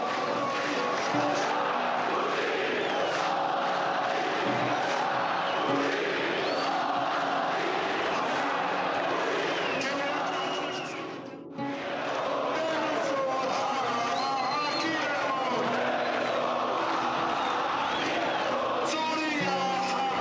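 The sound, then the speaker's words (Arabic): A large crowd at a Syrian Friday protest, the Friday named "Your Silence Kills Us", chants loudly and continuously in unison, voices rising and falling in rhythmic slogans, with a brief drop in sound partway through before the chanting resumes at full strength. “كانت الهتافات بهي الجمعة من كل المحافظات مثلا من محافظة حماة كان هتاف”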